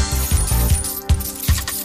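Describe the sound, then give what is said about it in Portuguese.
Coins drop one after another in a steady rhythm, each landing with a bright metallic clink and a brief ringing tone, fairly loud, with no voices. “Guardar moedinhas.”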